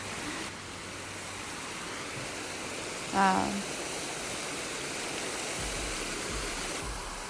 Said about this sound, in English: I'm about to approach a waterfall. I'll allow you to listen as I segue into the episode.